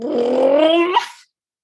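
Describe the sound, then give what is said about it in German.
A dog lets out one drawn-out vocalization, a rough growl that slides upward into a whimpering whine, lasting just over a second before cutting off into silence. “Mein der Hund äh, freut sich auch.”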